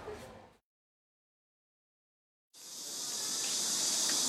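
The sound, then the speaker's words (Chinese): Cicadas drone in a dense, shrill, continuous buzz that swells slightly louder over a couple of seconds, following a brief burst of the same hiss and a moment of silence, in the Yulin district. No one speaks. “哇塞，有蝉鸣哎！”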